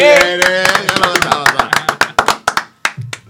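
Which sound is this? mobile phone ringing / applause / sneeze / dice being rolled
applause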